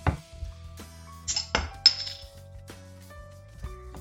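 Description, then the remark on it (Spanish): Clinks of glass and metal, then a cap pried off a bottle of Pilsner beer (5% alcohol) with a couple of sharp snaps and a brief fizzy hiss, with no talking. “Así es que, como ven, sin más preámbulo, ¿la destapamos? Pues va, échale.”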